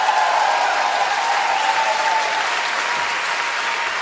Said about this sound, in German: Wenn es so ist, machen wir eine kurze, kurze ruhige Stelle, dann weg nochmal einen Applaus einspielen.